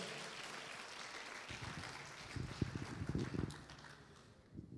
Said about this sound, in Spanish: ¿Le puede regalar una vez más palmas usted al Señor, hermano? Gloria a Dios.